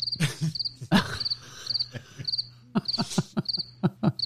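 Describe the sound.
A cricket chirps in short, high trills repeated every half second or so, steady, with scattered clicks and rustling knocks and a low hum underneath.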